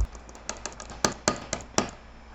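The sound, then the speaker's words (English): A quick series of sharp, dry computer mouse clicks. About ten crisp taps arrive at an uneven pace, a few louder than the rest, over faint background hiss with no voices. “Um, and you guys will be treated to some clicking sounds, uh, much like this.”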